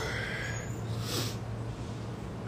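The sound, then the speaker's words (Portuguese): A single breathy yawn, a long airy exhale swelling and fading around the middle, heard over a steady low electrical hum with no talking. “Pessoal, para quem não sabe quando eu bocejo assim, não é falta de educação não, tá?”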